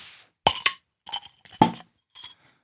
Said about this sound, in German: machen mal ein Bier auf